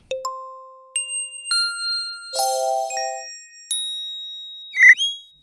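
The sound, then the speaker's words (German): A short chiming transition jingle: a sequence of clear bell-like dings with ringing tones that overlap and fade, a brighter cluster mid-way and a sparkly flourish near the end, with no voices. “Diese Jingles kommen euch sicherlich bekannt vor. Die verwende ich als die sogenannten Trenner, um die Übergänge schöner zu gestalten.”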